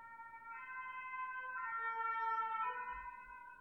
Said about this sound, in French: Euh, on va attendre que l'ambulance passe.